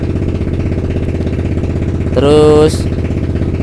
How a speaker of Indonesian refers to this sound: kenapa kalau orang lagi manasin motor bro